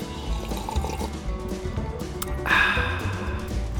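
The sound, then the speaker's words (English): Coffee being poured into a cup, a steady trickling splash that brightens and swells near the end as the cup fills, with no voices. “So, uh, grab your cup of coffee. I got mine. Cheers.”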